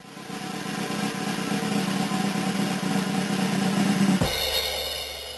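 A drum roll rattles steadily for about four seconds, a dense rapid rumble that swells slightly, then cuts off abruptly into a brighter, ringing tone. No one speaks.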